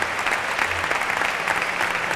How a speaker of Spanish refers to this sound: Ahí está Tomás Rufo que brinda el toro a José Antonio Carretero entre la ovación de la maestranza.